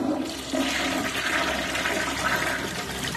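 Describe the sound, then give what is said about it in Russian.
A toilet flushes, a steady rushing gush of water that fills the whole moment without pause. No one speaks over it. “И такая пауза, и вдруг водичка сливается.”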